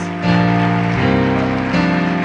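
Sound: audience applause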